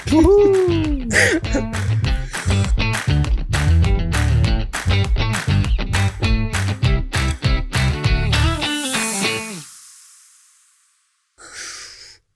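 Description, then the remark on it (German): A voice imitates an owl, hooting in a rapid, rhythmic string of 'hoo' syllables for several seconds, loud, then trails off into a breathy fade with a brief noise at the end. “Also, eure EWA Eulen, bla bla bla. Uhuhuhuhu.”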